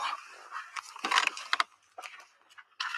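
A small dog makes short bursts of snuffling, panting and scrabbling noises as it is let out, with brief pauses between them and no one talking.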